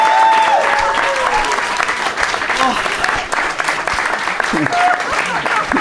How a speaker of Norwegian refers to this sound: Men kan vi få en ekstra applaus for dommeren?